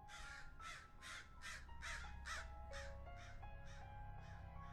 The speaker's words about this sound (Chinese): 坟地里一片漆黑，长满了各种杂草，不知名的鸟儿不时凄厉地啼叫着，给人一种毛骨悚然的感觉。